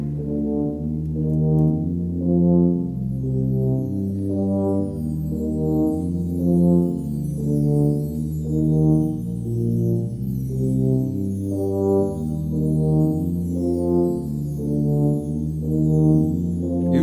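Live music recorded at a 2005 concert, with deep, sustained organ-like chords that shift slowly in steady blocks, loud and full throughout, with a faint airy shimmer above and no speech.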